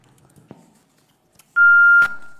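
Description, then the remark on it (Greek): A single loud, steady electronic beep from a telephone line lasts about half a second, then cuts off into a fading tail, preceded by a few faint clicks and thumps. “Πολύ ωραίο τηλέφωνο αυτό.”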